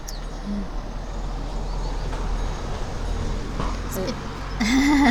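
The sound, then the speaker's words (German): A car passes by outdoors, its broad road rumble steady and then swelling louder toward the end, with a short voice sound near the close. “Hallo Auto.”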